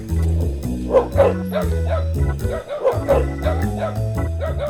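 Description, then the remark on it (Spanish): Several dogs on a farm bark repeatedly, sharp yaps and woofs overlapping in quick irregular bursts, with a steady low droning tone running underneath throughout. “pues vamos con los perros.”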